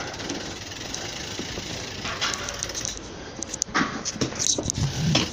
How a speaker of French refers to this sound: Je sort de sa résidence, on entend le, le cliquetis du moyeu.